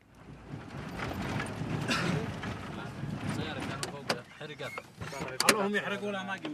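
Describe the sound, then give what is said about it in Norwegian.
A car crunches over a gravel road about an hour's drive south of Yemen's capital and slows to a halt just after a roadblock, a steady rumble broken by sharp clicks and knocks, with people starting to talk near the end. “Bilen vi färdas i bromsar inn straks efter en vägspärr på en grusväg en timmes bilfärd söder om Jemens huvudstad Sanam.”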